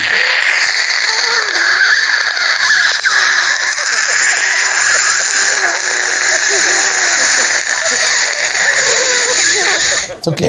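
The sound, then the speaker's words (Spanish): A person imitates a dentist's saliva ejector with a steady, wet, hissing gurgle for about ten seconds, loud and continuous with slight bubbling fluctuations. “es el sonido del aparato que te quita la saliva que te pone en el dentista.”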